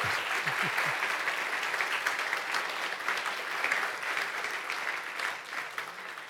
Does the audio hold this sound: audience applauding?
yes